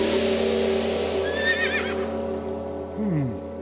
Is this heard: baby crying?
no